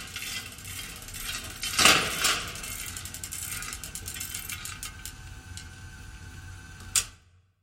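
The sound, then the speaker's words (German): Industrial textile machinery runs steadily, a dense mechanical clatter of rapid ticking and rattling over a low hum, with a louder clank near the start and a sharp knock just before it cuts off. “Die Kultur der industriellen Textilherstellung ist klangvoll und auch ein bisschen kompliziert.”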